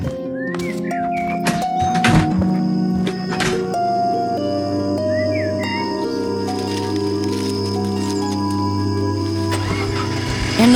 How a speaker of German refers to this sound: Erneut durchdrang der Knall eines kränkelnden Motors die nächtliche Stille.